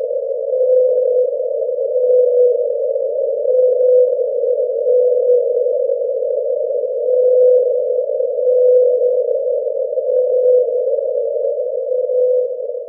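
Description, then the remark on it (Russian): A call of one particular blue whale: one long, steady tonal moan that holds a constant pitch for the whole stretch, swelling and fading gently in slow pulses, heard alone with no voices. “То, что вы слышали, это голос синего кита – и к тому же это не совсем обычный кит, это конкретный кит, с которым связана очень интересная история, которую я расскажу вам немножко позже.”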